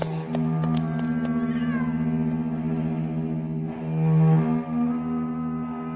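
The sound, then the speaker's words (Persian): Hermione's cat meows in long, drawn-out, wavering cries that run almost continuously, loud and tonal with strong harmonics, swelling briefly louder near the end before easing off. “نگاه کن هرمیونی گربه توه تو اینجا چی کار میکنی”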